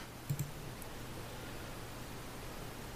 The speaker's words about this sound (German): Dann würfel ich erstmal den D10.